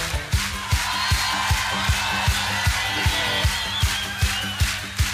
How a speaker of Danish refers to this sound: Det vi hører, det er Svend Gavn på Stortrum.